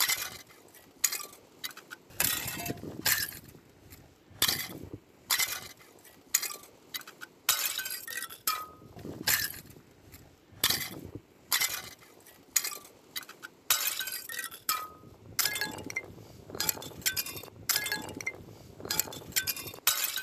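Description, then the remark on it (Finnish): Frozen leaves clink together in a rapid, irregular stream of bright, glassy taps, like a tiny ice xylophone, some strikes sharper and louder than others, with no voices. “Se on siis jäinen xylofoni.”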